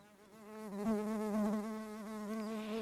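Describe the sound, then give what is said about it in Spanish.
A bee buzzes steadily for a few seconds, a continuous droning hum that wavers slightly in pitch and loudness, with no other sounds around it. “Escuchemos lo que nos tiene para hoy esta amigable abeja.”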